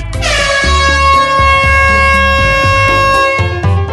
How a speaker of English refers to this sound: You know we can't peddle anesthesia here. That's why it comes with an air horn.